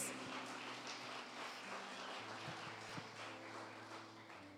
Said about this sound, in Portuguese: Dê um aplauso ao Senhor mais uma vez.